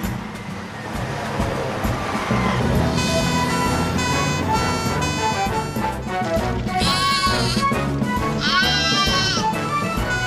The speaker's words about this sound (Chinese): 不是婴儿，是丽丽的羊宝宝，是一个愚蠢的恶作剧